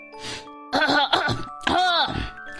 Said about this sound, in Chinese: 忽然，他想出了一条妙计，于是把所有的猴都召集来了。他清了清嗓子。